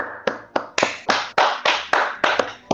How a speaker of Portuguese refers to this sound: Olha, parabéns, salva de palmas aí para ele.